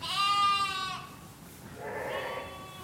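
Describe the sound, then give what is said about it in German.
Two sheep bleats, the first a long wavering cry, the second lower and shorter after a brief pause, inside a huge barn where over 200 sheep calmly eat hay, with a faint background rustle. “Die Ställe sind riesig, groß wie Hallen. Über 200 Schafe fressen da in aller Ruhe ihr Heu.”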